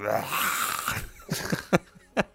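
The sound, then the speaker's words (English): A voice imitates a dog's strange noise: a drawn-out, raspy, wheezing groan, followed by a few short breathy huffs and sharp bursts, fairly loud, with no words spoken. “Uh, that was my dog. My dog was like”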